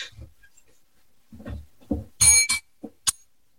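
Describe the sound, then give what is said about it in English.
A small bell rings out in a quick, bright burst, followed by a shorter ring and a final brief chime, with soft thumps and rustling just before. No one speaks. “I'm gonna ring the bell.”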